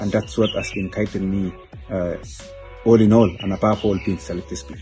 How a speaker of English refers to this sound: I love how you can hear the birds in the background on that as well.